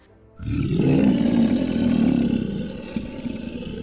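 A deep, powerful roar resounds through a whole house, surging in after a brief quiet and rumbling on loudly for several seconds, low and resonant, slowly easing off toward the end.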